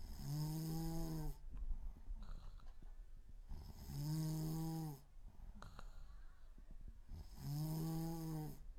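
Three long, loud snores come at a steady rhythm, each a low, rumbling, buzzy inhale lasting about a second, with quieter breathy gaps between them. No one speaks.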